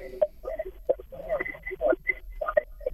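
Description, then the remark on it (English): A radio playing in a caller's background murmurs faintly through a thin, muffled phone line, with indistinct voices rising and falling steadily for the whole stretch. “Yes, but, but uh, you shut the radio okay, down in the background.”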